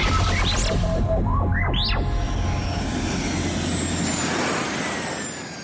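A motor revs up in a series of climbing, whining pitch sweeps, then settles into a loud, steady rushing roar that eases off slightly at the end. No one speaks.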